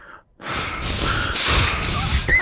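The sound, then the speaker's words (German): Heavy, breathy panting blown right into a microphone, loud, with rough rushing breaths running together for about two seconds after a brief silence. “Wir werden einfach sofort in diesen Schnaufmodus verfallen.”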